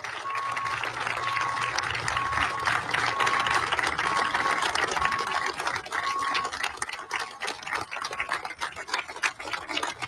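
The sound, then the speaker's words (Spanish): Sustained applause lasting over a minute from doctors, nurses and health workers in Mexicali, Mexico, honouring colleagues who died of COVID-19; dense rapid clapping that stays steady and fairly loud throughout, with a faint intermittent high beeping tone running through it. “El aplauso, más de un minuto, el reconocimiento de estos profesionistas de la salud.”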